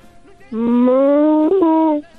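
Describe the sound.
A child's voice imitates a cow mooing on request: one long, loud, sustained moo lasting about a second and a half, its pitch drifting slightly upward with a brief wobble near the end.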